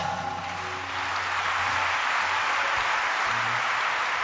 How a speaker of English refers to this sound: And to, to say thank you to God, I want you to put your hands together.